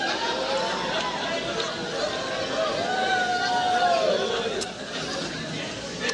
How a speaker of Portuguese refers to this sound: Tem pessoas olhando assim, porque esse povo está correndo. Fica tranquilo. É melhor você perguntar por que eu não estou correndo.